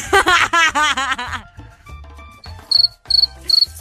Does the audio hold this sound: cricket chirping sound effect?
yes